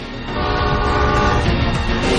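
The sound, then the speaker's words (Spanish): A train approaching on the same track rumbles loudly while its horn blares a sustained, steady chord over the rolling clatter of wheels, holding at full strength for about two seconds. “Un tren se les acerca por la misma vía.”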